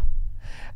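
A single short sneeze: a quick breathy intake followed by a sharp, hissy burst of air, heard alone with no talking.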